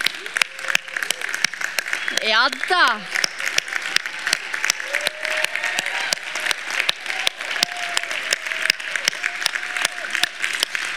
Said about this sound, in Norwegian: Vet du, Jeg tror dere må reise dere. Dere som leder, så må vi gi dere en klapp.